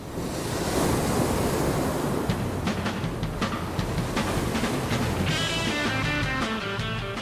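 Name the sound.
ocean waves crashing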